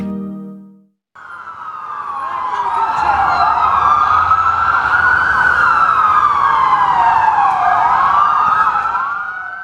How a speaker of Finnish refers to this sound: Ambulanssien jatkuva ääni on riipaiseva muistutus siitä, että ihmishenget ovat uhattuina.